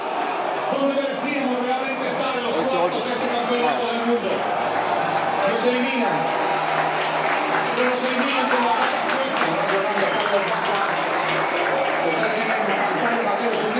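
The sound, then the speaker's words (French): A dense crowd murmurs steadily in the street, with scattered, timid clapping here and there rather than a full round of applause, after Colombia is eliminated on penalties in the round of sixteen. Indistinct voices chatter throughout at a constant level. “Attendez quelques applaudissements, mais, mais ils sont timorés.”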